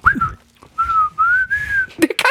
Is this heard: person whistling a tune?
yes